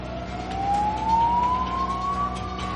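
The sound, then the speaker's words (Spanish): A police siren wails with a slowly rising pitch over the rumble of road traffic, loud as a police car rushes past at full speed. No one speaks. “entra en un pequeño túnel lleno de grafitis, en el que se detiene mientras ve pasar un coche de policía a toda velocidad.”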